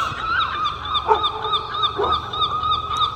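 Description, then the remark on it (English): A steady chorus of harsh, repeating seagull cries fills the air at moderate loudness, with a couple of deeper dog barks breaking through around the middle. “And if any of you speak seagull”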